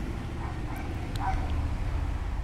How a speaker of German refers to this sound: Hier haben wir jetzt bellende Hunde. Das ist der Hund von. Äh Bernd Hoffmann.